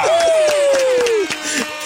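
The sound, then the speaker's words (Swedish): A short burst of clapping with a sustained horn toot over it, the horn's pitch sliding slowly downward before cutting off while the claps continue briefly. “En applåd och en tuta på det!”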